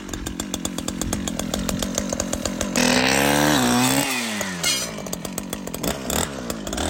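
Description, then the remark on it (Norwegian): A loud chainsaw drones with a rapid throbbing engine pulse, then bites into a birch tree as the pitch sags and rises under load, steady and continuous for several seconds. “Det er liksom forskjellen på de der bensinsagene og de elektriske.”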